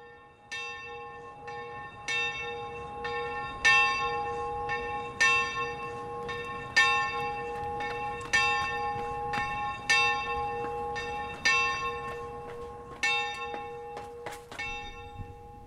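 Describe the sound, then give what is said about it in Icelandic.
Bells of Reykjavík Cathedral (Dómkirkjan) in Iceland ring out alone, striking five o'clock: a long run of loud, steady strikes about once a second, each clang leaving a sustained, humming tone that overlaps the next, with no voices. “Klukkan var slá 5 og ég er státt á stað sem hefur í gegnum aldirnar einni nýtt sér hópsöng til að tengjast mættinum.”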